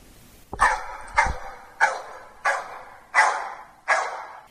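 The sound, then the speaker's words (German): Two dogs barking, six loud, sharp barks in a steady rhythm about half a second to a second apart, with no talking. “Ich glaube, ich muss den beiden Hunden folgen.”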